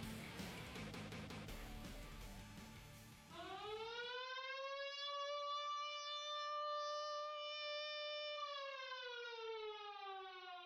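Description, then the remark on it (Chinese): A loud air raid siren from the game Red Alert Online wails in a long sustained tone, rising and then holding steady before slowly sagging, after a few seconds of dense, rumbling noise at the start. “警报嘶鸣，无数的炮火厉声划破空气，重重砸向敌方阵地，瞬间地动山摇，一片火海。”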